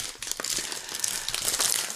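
Steady crinkling and rustling of a plastic bag of spicy tapioca chips being pulled open with difficulty, with dense crackles and small tearing bursts throughout, no voices.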